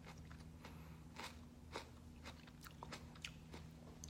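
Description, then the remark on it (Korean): Biting and chewing of crunchy food, with repeated crisp crunches at an irregular pace over a low steady hum. No one talks. “음, 먹어도 배고파요.”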